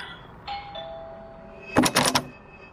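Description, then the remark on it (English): A doorbell is rung by someone standing at the front door of a house: a steady electronic chime tone holds for about a second, followed by a short burst of loud rattling clatter. Nobody speaks. “I'm standing in front of the door, ringing the doorbell, which is probably futile.”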